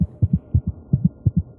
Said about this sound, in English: At five, at about 10 feet out, the heartbeat can be heard from this jar. As you sort of lean past that 10 foot mark, the heartbeat speeds up.